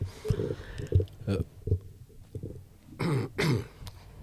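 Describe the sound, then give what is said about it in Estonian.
A voice makes a string of short throat-clearing grunts, then two harsher, louder coughs near the end, as if imitating a cough. “sa saad köhi-köhi, see on, see on suva.”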